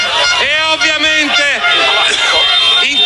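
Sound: football fans celebrating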